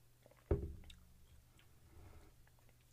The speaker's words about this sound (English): I'll take a sip.